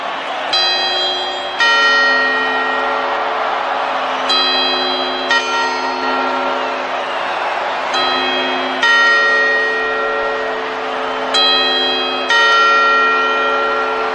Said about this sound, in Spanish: Y eh, no tengo reloj, pero ya, ya van a ser la hora de las campanadas. Y vamos allá con las campanadas. Cuartos.